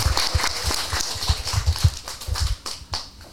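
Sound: applause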